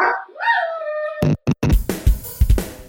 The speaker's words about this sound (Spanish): perdonen que tengo el cachorro ladrón.